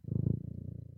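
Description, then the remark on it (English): A cat named Rocky Flintstone purrs steadily right into the microphone, a low rumbling pulse with a fast, even rhythm that fills the short moment with no talking. “and that's a cat. I mean, purring is very yeah.”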